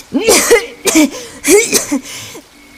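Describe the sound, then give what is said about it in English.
A woman coughs harshly several times in a row, three or four rough bursts with brief gaps between them and no talking. “Coughing again, she quickly recorded a message for Shinji and hit send.”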